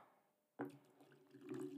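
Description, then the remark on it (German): Water is poured into a glass, starting abruptly with a steady gurgling splash that swells slightly as the glass fills. No one speaks. “Ich kann schon mal Wasser einschenken.”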